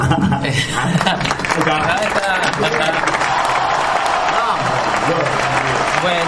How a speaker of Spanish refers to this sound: Bueno, chicos, muchísimas gracias por su tiempo. Eh, los despedimos con un aplauso. Muchísimas gracias. Un aplauso.